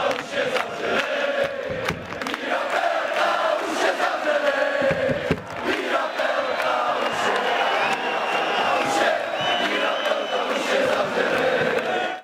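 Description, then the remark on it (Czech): A dense, steady wash of artificial football crowd noise, fan sounds mixed in at the Stínadla stadium in Teplice during the Teplice–Liberec match: many voices shouting and chanting together with bursts of cheering, sustained loudly without pause for about twelve seconds. “Mám na mysli samozřejmě to přimíchávání ruchů fanoušků na teplických stínadlech.”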